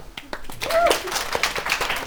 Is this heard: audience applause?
yes